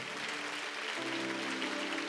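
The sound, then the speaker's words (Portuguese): An audience claps steadily in a dense, continuous wash of applause, with sustained low keyboard notes humming underneath and shifting to a new chord about a second in. “Dê uma salva de palmas para Ele.”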